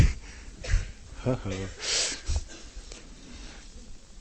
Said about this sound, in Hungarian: Szóval a szél, a nagy széltől van.